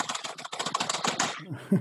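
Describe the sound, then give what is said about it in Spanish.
Rapid typing on a computer keyboard, a dense run of clattering keystrokes in quick succession that thins out toward the end with a couple of final taps. “Sí, sí, si no lo hago con el teclado ya.”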